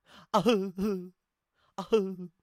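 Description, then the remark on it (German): A voice imitates the exaggerated, loud crying of an actor in a film scene where his character's mother dies, in two wailing bursts separated by a short pause, with sobbing, wavering pitch and heaving breaths, theatrical. “Es gibt, ein, es gibt die Szene, wo seine Mutter stirbt und du hörst ihn weinen durch ganz Graceland und der weint wirklich so.”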